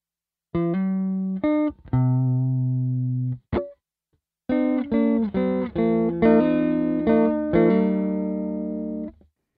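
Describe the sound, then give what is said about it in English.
A clean electric guitar plays through its amp on its own, without any pedals. It plays bright, ringing notes and chords, starting with a short phrase, then a brief pause, then a longer strummed passage that sustains. “So that was just our guitar and our amp, and it's a good foundation for a tone, but it's not all the way there, especially if you listen to the real song and hear his tone.”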